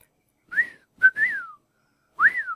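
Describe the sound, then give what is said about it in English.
A person whistles a bird-like call with their mouth: three rising-then-falling chirps, the middle one with a quick sharp note before it, clear, with short pauses, no talking. “simulating the sound of a bird.”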